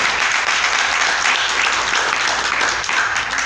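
An audience breaks into sustained applause for the Lord at an afternoon church service, a dense, steady wash of many hands clapping at a strong, even level throughout, with no voices standing out.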